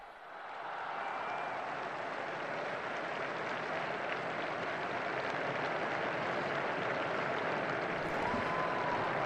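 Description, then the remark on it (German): A large crowd of faithful on a square applauds steadily at the words of Pope Francis after the Angelus prayer, the dense clapping blending into a broad wash of sound with scattered cheers, rising quickly in the first second and holding loud throughout. “Die Gläubigen auf dem Platz quittieren die Worte des Heiligen Vaters mit großem Beifall und Jubel.”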